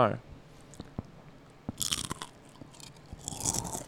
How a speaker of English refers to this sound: Ooh, that was so. That was one of the most satisfying noise. Yeah. That was satisfying, not annoying. No, no, it was Well, very. uh, Let me eat another chip.